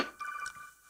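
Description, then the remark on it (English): A brief electronic phone ringtone chirps a few quick tonal pulses, fairly quiet, then fades out with no talking. “That was my phone.”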